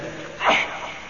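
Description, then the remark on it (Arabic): A single short sneeze bursts out sharply in the middle of a lecture on Eid prayer, a quick breathy blast with faint background hum. “يرحمك الله”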